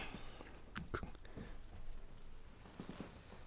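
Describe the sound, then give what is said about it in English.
A German Shepherd gives a few short, sharp vocal bursts, clustered near the start and then a softer run of yelps toward the end, fairly faint against a quiet background with no talking. “has a German Shepherd.”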